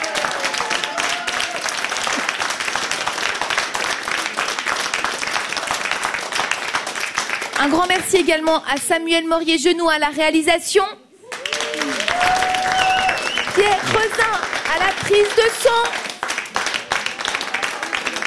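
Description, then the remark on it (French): The Studio 15 audience applauds itself at the end of the show Tacotex, a dense crackle of many hands clapping that runs throughout, briefly dipping once, while a man talks over the applause. “Applaudissez-vous, vous le méritez.”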